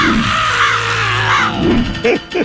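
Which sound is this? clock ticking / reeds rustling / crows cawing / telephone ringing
crows cawing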